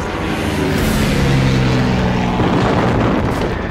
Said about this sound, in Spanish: Los aviones. Terrible, terrible. Los aviones caían en picada sobre nosotros, como rayos de luz. Salían las balas por todas partes pa, disparaban hacia la plaza del minero, hacia el desmonte, y mataron a mucha, mucha gente.